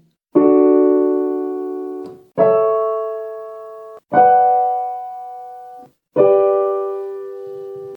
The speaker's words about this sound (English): So applying this common chord progression to D major, it sounds like this. And again.